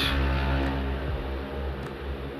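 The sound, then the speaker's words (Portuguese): A motorcycle passes close by a veranda, its loud, steady engine rumble filling the whole moment with a deep droning hum and no voices over it. “Olha, gente, eu estava gravando aqui esse episódio na varanda e provavelmente passou uma moto aqui perto e fez muito barulho, vocês me desculpem.”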